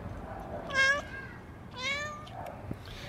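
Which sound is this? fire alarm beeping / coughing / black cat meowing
black cat meowing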